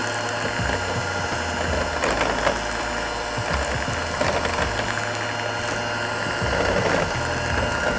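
An electric mixer whirs steadily as it beats eggs and sugar, a continuous mechanical buzz with a rattling, clattering texture and low motor hum that shifts slightly in pitch. No one speaks.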